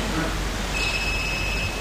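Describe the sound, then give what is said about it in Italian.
A mobile phone belonging to someone in the audience rings, a steady high electronic tone that starts partway through and holds, moderately faint over low audience murmur. “E qualcuno di noi che ha questo telefono?”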